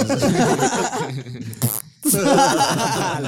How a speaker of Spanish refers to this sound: y ahorita vamos con una sonora de pedos. Nos preparamos.